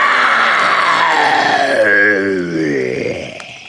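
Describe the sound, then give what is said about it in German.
A loud, drawn-out roar made by a human voice, imitating a tiger: a rough, growling cry that sweeps downward in pitch over a few seconds, then fades. “Plötzlich dringt ein fürchterliches Gebrüll durch den Dschungel.”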